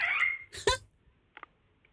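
A parrot gives a shrill, raspy call followed by a loud harsh squawk up close, then a couple of brief, quieter chirps trail off after a short pause.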